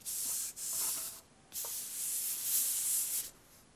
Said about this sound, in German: Ich meine, guck das mal, das Blatt Papier, was hier liegt. Ich kann nur mit einem kleinen Finger das Blatt bewegen und man hört es.